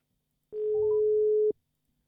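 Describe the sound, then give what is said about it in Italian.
A single one-second beep of an outgoing phone call's ringing tone: a steady, fairly low electronic hum that starts and stops abruptly, followed by silence. No one speaks. “È solo che adesso dobbiamo fare subito la telefonata.”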